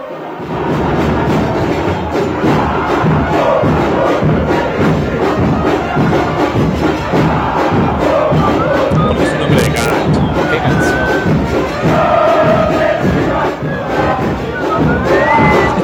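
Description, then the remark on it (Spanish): A huge stadium crowd of Argentine football fans chants a song in unison, loud and continuous throughout, with thuds and scattered shouts mixed into the dense roar of voices. “es un clásico de las hinchas argentinas.”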